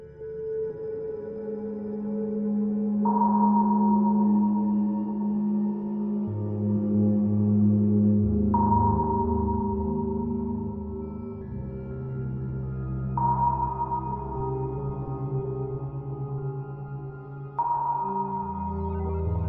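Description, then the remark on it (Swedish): A recorded emergency alert signal: a steady electronic tone pings about every five seconds, four times, over a loud, low, rumbling drone. No one speaks. “Och det enda vi kunde liksom höra var den här nödsignalen.”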